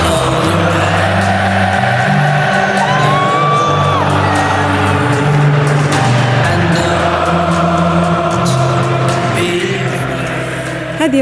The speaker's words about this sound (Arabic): مستمعينا الأغنية التي يحن لها يورجن كلوب ولكن بأصوات الجماهير والتي ستكون غائبة بالتأكيد في لقاء ليفربول أمام إيفرتون